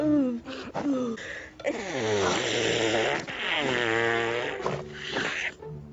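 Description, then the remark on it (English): A voice mimics the enormous night-time sneeze of Gajapati Kulapati with loud, drawn-out, wavering vocal wails that build in several long swells, dramatic, with no ordinary talk. “It was the biggest sneeze anyone had heard.”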